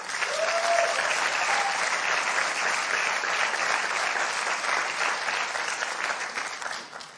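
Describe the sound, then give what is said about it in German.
An audience claps steadily for several seconds, giving God a round of applause: a dense, even wash of applause at a constant level that tapers off slightly at the end, with a faint whistle early on. “Und wenn es dir so erging, hey, dann gib doch Gott mal einen Applaus, dass er dich nicht allein gelassen hat.”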